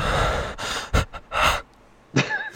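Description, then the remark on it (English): A man breathes heavily, a run of loud, ragged inhales and exhales with short pauses, ending in a sharper, partly voiced gasp. “That's just the dude, the, the main dude breathing heavily.”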